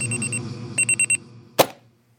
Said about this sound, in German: Wenn mein Wecker klingelt, dann drücke ich direkt auf Schlummern. Na und dann nochmal. Und neun Minuten später nochmal.